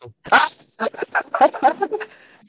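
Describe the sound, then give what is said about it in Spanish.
A dog gives a rapid string of sharp barks and yelps, about eight bursts in quick succession, loud, with a brief pause after the first. “¡El perro! ¡No, no, ¡Los perro!”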